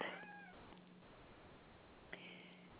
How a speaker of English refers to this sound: We have a kitten here.